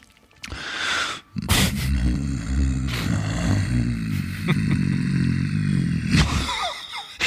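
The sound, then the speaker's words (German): A person hums a low, buzzy drone right against the microphone, holding it for several seconds after a brief break, the pitch wavering slightly, with a few small clicks and no talking. “aber das richtige Brummen muss, muss leise sein.”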